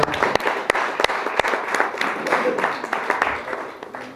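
A crowd at a rock band's show applauds steadily for the band's musicians, dense clapping with a few sharper claps standing out, while indistinct voices murmur underneath.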